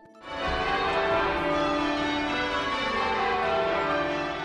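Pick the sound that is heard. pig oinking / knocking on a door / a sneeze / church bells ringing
church bells ringing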